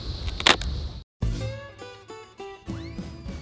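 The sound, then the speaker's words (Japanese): A short crunching of a shrimp rice cracker (ebisen), a few crisp bites, then a brief silence and a bright musical jingle takes over. “エビ線とタコ線って音が違うんですね”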